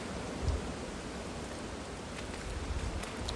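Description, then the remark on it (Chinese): Strong wind roars on the Dongman trail (东满步道) during a walk in cold weather, a steady, broad hiss, with low rumbling gusts buffeting briefly near the start and again toward the end. No one speaks. “可是听到那个风声这么大，嗯。”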